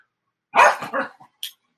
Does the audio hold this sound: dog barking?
yes